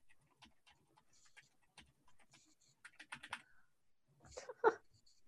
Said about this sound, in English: yeah, and he like starts clacking away on his keyboard.